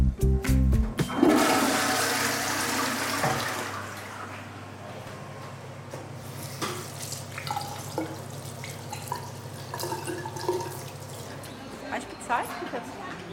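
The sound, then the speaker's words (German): A toilet flushes with a loud initial rush of water that settles into a steady refill hiss, with faint drips and trickles continuing afterward. “Na cool, ich wollte schon immer mal in einem Hörspiel auf Klo gehen.”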